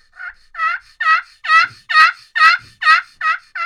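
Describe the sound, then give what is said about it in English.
A turkey yelp sequence played on a glass friction call with a mushroom tip: nine evenly spaced, raspy notes building louder toward the middle and easing off, clear with no talking. “that that's the glass with the mushroom tip.”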